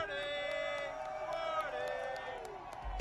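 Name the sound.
audience shouting and cheering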